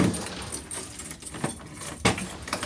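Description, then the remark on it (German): Keys jangle and metal clicks sound as several doors leading to a storage cellar are unlocked and opened one after another, with several sharp clacks spread across a few seconds and no one talking. “Und so müssen wir durch mehrere Türen.”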